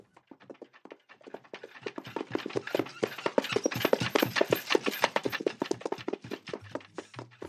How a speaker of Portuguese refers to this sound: Provavelmente está imaginando uma porção de outras coisas também. Talvez um vilarejo, uma locação rural, um filme de época. Mas isso não sei dizer, porque o único som que realmente existe aqui é de uma carroça ou de uma charrete.